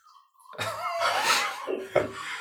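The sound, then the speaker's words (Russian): Wine glugs from a bottle into a glass as someone pours themselves a drink, a gurgling pour lasting about two seconds with a rising ring as the glass fills, with no voices. “Если вы слышите этот звук, то это наш продюсер наливает себе в бокал вино.”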